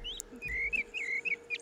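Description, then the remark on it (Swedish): A small bird chirps in a run of quick, high, thin notes that rise and fall, fairly faint over a low steady background hum, with no voices. “Ja, fågeln får kvittra i bakgrunden.”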